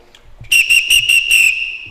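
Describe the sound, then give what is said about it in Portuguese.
A person whistles through their mouth in a quick run of five or six sharp, shrill bursts, mimicking a party whistle, loud with no talking. “Só que eu já nasci com apito, né?”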